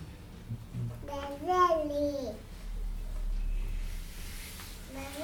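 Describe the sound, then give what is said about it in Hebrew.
A young child babbles in a high, sing-song voice, one drawn-out vocal burst in the middle followed by quieter background noise and a brief second sound near the end. “עוד כמה ילדים היו עושים לנו עוד יותר שמח.”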